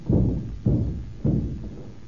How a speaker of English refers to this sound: Look here, I'm worried. I think we'd better break the door in.